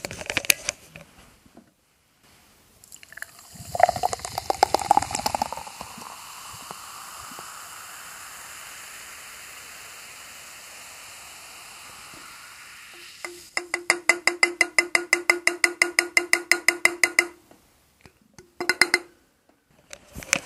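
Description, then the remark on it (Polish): A canned drink is poured into a glass: a splashy gush gives way to a long, steady fizzing stream whose tone rises as the glass fills, followed by rapid crackling bubbles. “Teraz jeszcze trzeba nalać, tak żeby nie rozlać.”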